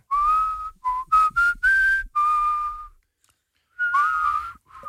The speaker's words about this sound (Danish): Men... fløjter jeg bare det, jeg godt kunne tænke mig at høre jer fløjte.